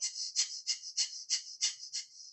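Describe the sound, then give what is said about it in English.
Quick, forceful breaths pushed in and out through the nose while quickly pumping the belly, fire breathing, a pranayama technique from the yogic tradition; about seven sharp puffs in steady rhythm over two seconds, fairly soft with no talking. “So these would be the Wim Hof breathing is the alkaline or DMT breathing is the same, just in through the nose and then the fire breathing is in and out through the nose, quickly pumping the belly.”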